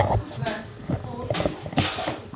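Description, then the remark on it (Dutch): Pots and pans clatter as cooking goes on in the busy kitchen of the Couscousbar, a small takeaway restaurant on the Javastraat, with irregular metallic bangs and scrapes over a steady background roar, and muffled voices mixed in. “Zo, nou, we lopen dus de keuken binnen. En er wordt hier al heel hard uh, gekookt”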